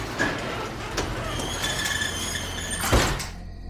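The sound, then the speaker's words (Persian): A door slides and squeaks along its track, ending in a solid thud as it shuts, as someone goes back into a storeroom, with a steady low rumble in the background and no voices. “در رو بستم و برگشتم تو انبار”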